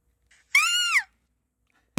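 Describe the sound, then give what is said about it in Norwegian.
A single shrill, high-pitched scream of a person on an audio recording played by mistake, lasting about half a second, rising then falling in pitch, loud; after a short silence, a brief noisy burst cuts in. No talking. “Hvorfor har du tatt lydopptak av at du skriker?”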